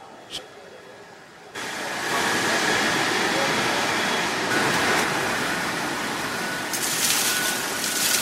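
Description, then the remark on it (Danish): A large vacuum cleaner switches on after a quiet moment and roars steadily, a loud, rushing suction noise that holds constant as a pet's ash is drawn up from a cremation oven that runs at 800-900 degrees, so all of it is collected and not mixed with other pets. “Og nu bliver asken suget ud, så man er sikker på at få det hele med.”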